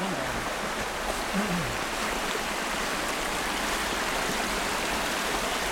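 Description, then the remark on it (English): A stream flowing from the surface into a cave rushes steadily and loudly, a dense, unbroken wash of flowing water filling the whole stretch, with a brief low murmur surfacing faintly beneath it. “this is where the stream enters into the cave from the surface, uh, but it doesn't actually go into Church, It just goes into Pierre's Pot, which is a cave that's just over there.”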